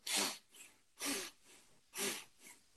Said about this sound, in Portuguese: A respiração é muito fácil fazer. É uma técnica muito simples. É uma respiração circular, que não tem espaço entre o ar que entra e o ar que sai, com uma ênfase no ar que entra.